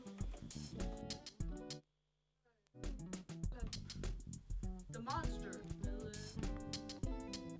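A rap track plays quietly in the background, rhythmic vocals riding over a steady beat, with a brief drop to near silence early on before the music resumes.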